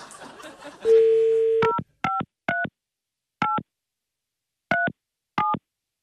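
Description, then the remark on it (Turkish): A steady dial tone gives way to six electronic keypad beeps, each a short two-tone chirp, pressed at an uneven, hesitant pace with gaps between them, as a phone number is dialed to connect a man's wife to the call, with a wrong key pressed. “Allah yanlış tuşladım heyecandan.”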